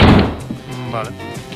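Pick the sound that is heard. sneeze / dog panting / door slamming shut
door slamming shut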